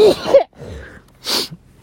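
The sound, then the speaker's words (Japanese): A single close-up sneeze: a breathy, voiced wind-up followed by a sharp, hissing burst, loud and isolated with no talking around it. “なんかねくしゃみ出ますよね”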